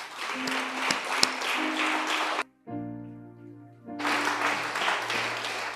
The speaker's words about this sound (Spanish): ¿Por qué no juntas sus palmas?